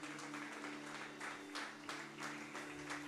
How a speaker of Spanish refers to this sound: Amén, Señor. Amén. Le un aplauso a nuestro Dios, a nuestro Rey.